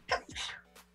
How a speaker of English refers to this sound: Bless you again. Fourth time. Let's get a sneeze count going. That's Ooh, five.